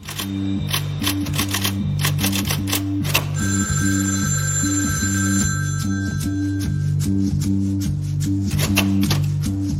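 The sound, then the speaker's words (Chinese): In a film scene, a writer's telephone rings for the second time with a steady electronic tone while she types on a typewriter, over rapid typewriter clatter and a repeating, pulsing low musical line that runs throughout. “作家打出电话又响了这几个字，结果自己的电话第二次响了。”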